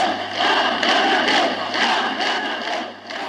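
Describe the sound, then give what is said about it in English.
A large outdoor crowd at the funeral of poet George Seferis in Greece shouts in unison "Athanatos" (immortal), then chants "Eleftheria, Demokratia", a rhythmic chant rising and falling in repeated waves of many voices, loud and dense with a steady low hum underneath. “The crowd is shouting Athanatos, or immortal, in reference to the poet's standing then they chant Eleftheria, Demokratia, freedom, democracy.”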